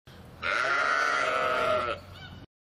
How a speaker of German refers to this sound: Eine Herde. Kennen ja alle. Da gibt es zum Beispiel die Kuhherde und die Schafherde.